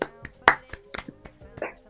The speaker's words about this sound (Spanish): Un aplauso para ese hombre.